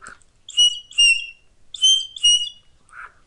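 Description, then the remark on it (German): A shepherd whistles to a sheepdog with a whistle other than the usual one: four sharp, high, warbling blasts in two quick pairs, loud, with nothing else audible, signalling the dog to get up and walk behind the sheep at a normal, relaxed pace. “Das Ist gar nicht meine Standardpfeife weil die ist im Auto.”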